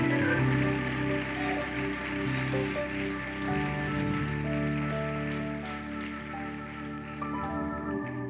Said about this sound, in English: Lord have mercy, what preaching we've heard tonight. Give a hand clap to the Lord for the wonderful word we've already heard.